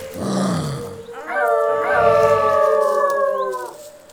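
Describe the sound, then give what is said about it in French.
Wolves howl in long, sustained, wavering tones with several voices layered together, preceded by a low growling snarl, as they encircle a group of men in a forest clearing. The sound is loud, with no talking. “Tandis que les hommes s'avancent, ils se retrouvent encerclés par des loups et des lions de montagne.”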